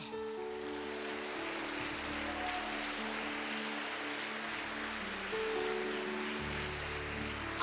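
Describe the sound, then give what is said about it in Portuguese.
A large audience claps steadily for several seconds in praise of the Lord, a dense, continuous wash of applause with sustained keyboard or organ chords droning underneath. “Você pode aplaudir o Senhor?”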